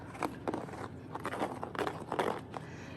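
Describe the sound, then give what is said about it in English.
Paper pages of a blank notebook, a prop for an elf show, being handled, giving soft irregular rustles and crinkly crackles in a string of short bursts, with no talking. “This book makes a lot of really nice sounds. It's just a, a blank notebook.”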